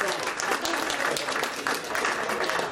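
An audience applauds a girl for taking part, a steady, dense wash of many hands clapping at an even loudness throughout, with no voices standing out.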